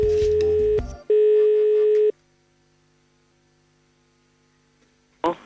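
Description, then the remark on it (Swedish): A brief burst of clattery dialing gives way to one steady, fairly loud telephone ringing tone of an outgoing call, lasting about a second, then a long quiet pause before a voice briefly answers. “Och så ringde vi helt enkelt.”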